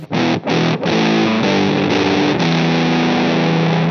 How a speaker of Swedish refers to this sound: Eh, och eh, med en fuss innan så... Eh, bara fuss låter ju i det här läget då.